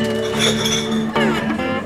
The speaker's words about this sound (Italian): La noia e l'ozio regnano sovrani all'interno del bar. È un caldo pomeriggio nel Nuovo Messico. e il proprietario del locale asciuga pigramente i bicchieri.